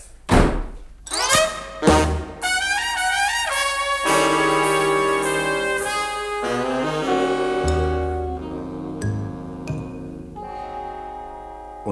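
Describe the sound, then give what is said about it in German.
Three heavy, booming thuds of doors slammed shut land in quick succession, then a swelling burst of dramatic orchestral music takes over and lingers. “Ich konnte es Inspektor Carter nicht einmal verübeln, dass er so mit den Türen um sich knallte”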